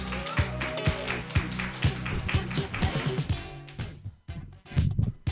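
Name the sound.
audience clapping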